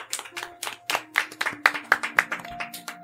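A short run of about ten sharp hand claps at a fairly steady pace, with soft sustained musical tones underneath.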